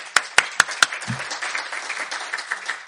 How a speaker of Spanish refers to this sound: Un aplauso para